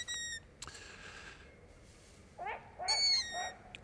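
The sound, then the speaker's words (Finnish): Long-eared owl warning calls from a parent bird with chicks nearby: several high, squeaky, strained notes in short bursts, one at the start and a cluster near the end, fairly clear against a quiet background with no talking. “Jätetään sarvipöllö tuonne taustalle ja otetaan lähetykseen mukaan.”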